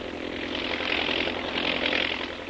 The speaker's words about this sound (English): An army plane in advance of the mechanized column sights something and reports by radio to the column below.